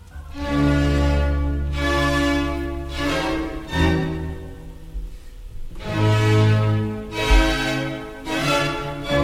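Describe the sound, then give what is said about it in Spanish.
A solemn orchestral introduction, the opening of a sacred work conveying a sense of pain, plays loudly, with full sustained chords swelling and breaking into forceful repeated accents every second or two. No voices are heard. “Es como la entrada a, a un gran oratorio”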